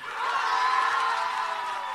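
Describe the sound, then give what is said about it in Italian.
A large audience claps and cheers for a second applause-meter recording, in a steady, dense roar that holds at full volume for a couple of seconds, with scattered shouts mixed into the continuous wash of applause. “Fine la registrazione, partiamo con il secondo Vai. applausometro.”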